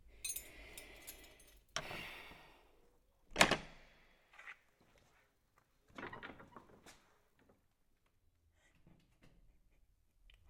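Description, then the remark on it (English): A door is handled and opened, with a sharp clack, a creak and scraping sounds in bursts, then quieter shuffling and faint knocks in otherwise hushed surroundings. “Stop hesitating, you silly girl. Open the door and get it done.”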